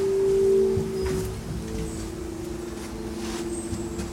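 A steady, droning hum from a vibrating rope holds one pitch for the whole stretch, strongest at the start and then settling, over a soft bed of outdoor background noise.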